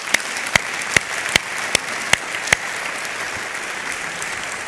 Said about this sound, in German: Dann tun wir das mit einem herzlichen Applaus.